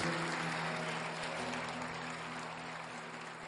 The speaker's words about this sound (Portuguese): Se você recebe, querido, dá um glória a Deus e aplauda bem forte ao Senhor.